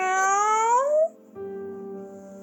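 A cat lets out a loud meow that rises in pitch, then after a brief pause gives a second, steadier drawn-out cry. No one speaks.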